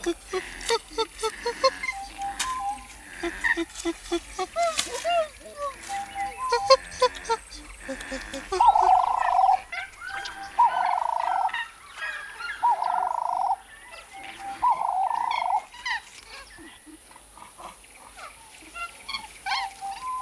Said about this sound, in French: chimpanzés en bordure du fleuve Gambie.